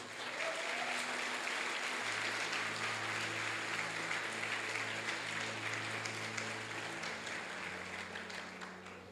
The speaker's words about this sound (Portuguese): Vamos dar um forte aplauso a Jesus.